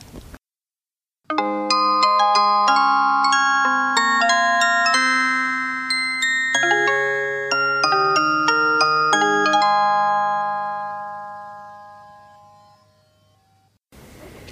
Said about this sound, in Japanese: えー、まだまだあのちょっとお話聞きたいんですがここで、えと、1曲音楽をかけたいと思います毎回ゲストの方に音楽を選んでいただいてるんですが今日は何をかけましょう